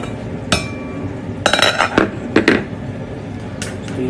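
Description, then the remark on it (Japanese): Clinks and scrapes of dishes and utensils as food is plated into dishes, a few sharp clatters spaced irregularly over a steady low background, with no talking. “この間ちょっとじゃあ、えー、ご飯ね用意しますオッケーちょっと盛り付けます”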